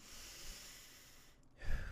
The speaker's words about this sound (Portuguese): Mano, é só respirar fundo